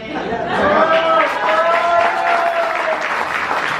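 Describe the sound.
Loud, steady applause from an audience fills the whole stretch, a dense clapping wash mixed with cheering voices and crowd chatter.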